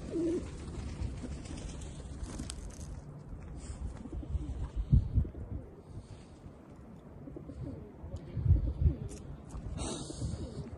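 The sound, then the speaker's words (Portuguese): Pigeons coo in low, throaty bursts, with soft wing flutters and shuffling as they land on a person's arm in the middle of a street, over a steady outdoor background hiss. “Pombos resolveram pousar no meu braço.”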